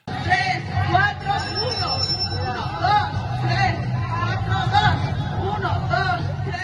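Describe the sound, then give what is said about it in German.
A dense crowd hubbub on the Zócalo, the main square of Mexico City, as thousands of young boxers train punch sequences; many voices blend into a steady, loud babble with occasional higher calls rising above the murmur. “So klang es am vergangenen Samstag auf dem Hauptstadt Zocalo.”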